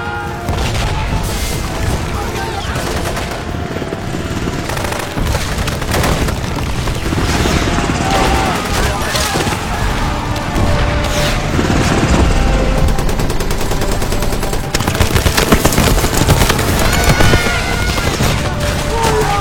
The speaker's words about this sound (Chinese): 就在此时，武装直升机终于到了，一番狂轰乱炸，现场众人四散逃跑。